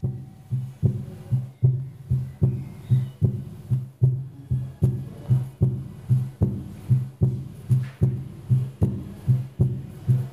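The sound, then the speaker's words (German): A steady, deep heartbeat sound effect, an interactive element in an exhibition, thumps on its own at a brisk, even pace, each low beat fairly loud, with a faint hum between the pulses. “Ähm, nicht nur der Herzschlag, von dem wir vorhin schon gehört haben, sondern auch der ein oder andere Schauspieler.”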